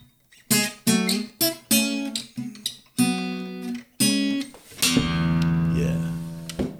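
An acoustic guitar plays a solo passage, recorded with a Shure SM57 microphone: a run of sharply plucked, ringing notes in quick succession, then a sustained strummed chord left to ring out, with no voices.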